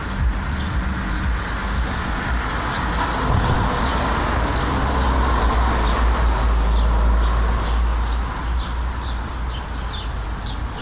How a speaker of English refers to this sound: a bunch of sparrows flitting around in the bushes and trees, flying up under the eaves of the train station.